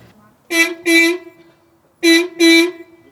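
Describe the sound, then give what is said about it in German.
An old fire truck horn honks in two quick pairs of loud, brassy blasts, four toots in all with a brief pause between the pairs. “Mehr Horn als Hupe. Ja, die klingt schon goldig.”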